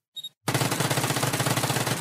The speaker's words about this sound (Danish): Det var de 10, skud.